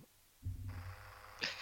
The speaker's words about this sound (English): no, that's a plane.